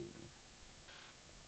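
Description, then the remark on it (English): A cat named JJ purrs softly and steadily, a low continuous rumbling with a faint breathy hiss and no voices over it. “JJ, stop, stop it. Sorry, bloody cat.”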